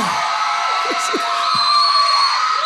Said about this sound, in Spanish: la otra vez me tocó me tocó dar clase, todos esos gritos son comprados, entonces bueno, ya desde ahorita este, les piché maruchan a todos